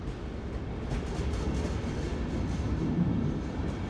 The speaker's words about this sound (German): Der Zug fährt los.